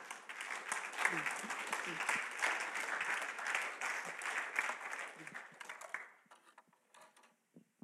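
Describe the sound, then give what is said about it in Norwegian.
An audience applauds a woman being welcomed up to give a testimony, with steady, dense clapping for about six seconds, then the clapping thins out and fades to a few scattered claps. “En klapp for henne òg.”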